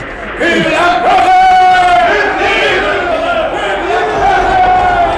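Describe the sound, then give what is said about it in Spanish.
A large crowd shouts and roars together in a loud, sustained mass of overlapping voices, swelling into a strained collective yell that holds steady for several seconds. “¡No puedo con esos gritos!”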